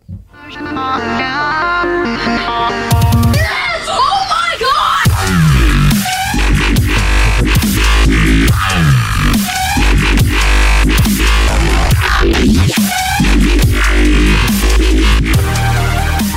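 A loud song said to repel mosquitoes plays throughout, opening with a short melodic intro before a full band kicks in with heavy, steady drum beats and dense instrumentation. No one speaks over it.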